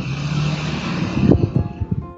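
A motorcycle engine rumbles steadily, then its low growl breaks into a series of uneven pulses before cutting off as it passes outside.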